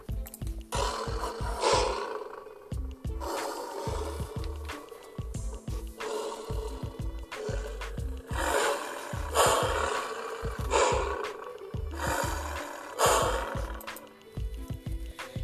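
A lion roars repeatedly in loud, rumbling bursts that rise and fall every second or two, with deep pulsing tones underneath throughout.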